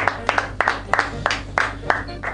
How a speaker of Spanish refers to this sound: fuerte el aplauso, ¿eh? Un gomía que no vino a visitar.